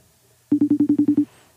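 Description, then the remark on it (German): A FaceTime video call ringing tone: a quick burst of about eight short, identical electronic pulses in steady rhythm, clear, with no talking over it. “Ich kann da nicht FaceTime machen, doch, ich kann doch FaceTime machen.”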